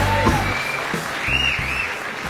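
An audience applauds steadily, a dense wash of clapping that holds at an even, fairly loud level, with a faint whistle-like tone and some low background thumps underneath.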